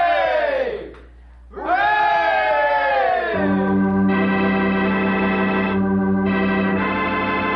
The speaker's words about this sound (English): I want to apologize too and say three cheers for Susan Anderson. Hooray! Hooray!